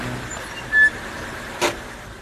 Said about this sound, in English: Look, there she is getting in her car.